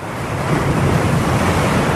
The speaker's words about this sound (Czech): Teď jsem zrovna našel úplně náhodou eh, zvuk oceánu, který má 9 hodin a můžete si ho pustit prostě jako ke spaní, jo, to já občas jako dělám. Máte zvuk jako oceánu, třeba.